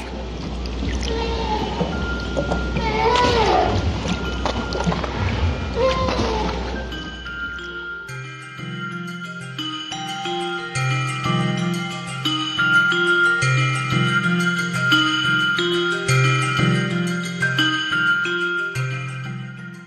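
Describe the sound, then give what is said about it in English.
Right whale calls underwater: faint rising moans over a noisy, rumbling hiss for several seconds, then the ocean recording cuts off and gentle melodic music with plucked bass notes takes over. “These are right whale sounds from the website Discovery of Sounds of the Sea.”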